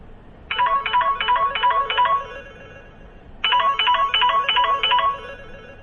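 A phone ringtone for an incoming call plays two bursts of rapid, trilling electronic notes, separated by a short pause. The rings are clear, with no talking.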